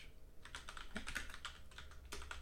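Rapid typing on a computer keyboard, a quick irregular patter of clicking keystrokes, with no voices over it.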